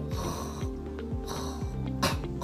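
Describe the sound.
A person imitates the raspy, rattling snore of a sick chicken, a sign the chicken may have CRD (chronic respiratory disease), repeated in several short snorting bursts at a steady rhythm, moderately loud with no other sounds.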